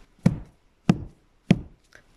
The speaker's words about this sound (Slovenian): Trije lovci so trikrat pobutali na vrata.